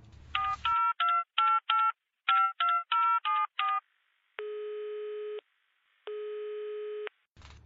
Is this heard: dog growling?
no